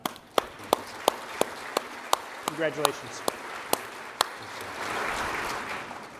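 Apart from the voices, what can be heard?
audience applause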